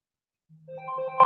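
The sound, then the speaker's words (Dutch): After a short silence, a mobile phone ringtone starts up: a few steady electronic tones stepping upward in pitch, growing louder near the end, with no one talking. “Nee, ik zat net te bedenken, ik heb mijn telefoon niet uitgezet, maar ik dacht, dat geeft niet, wordt toch niet gebeld.”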